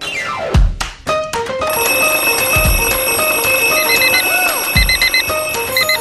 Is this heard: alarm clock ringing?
yes